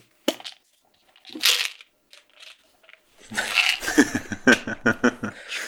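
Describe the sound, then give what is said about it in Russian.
Sharp plastic clicks and taps, then a busy stretch of rattling and clattering as vitamin pills are shaken out of a container, with a quick run of loud knocks near the end. “Прием колес в прямом эфире.”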